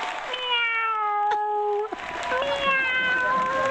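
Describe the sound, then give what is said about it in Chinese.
A person imitates a cat with two long, drawn-out meows separated by a brief pause; the first is steady and high-pitched, the second slides slightly upward and fades out. It is one of ten animal sounds imitated on request. “那个猫，喵”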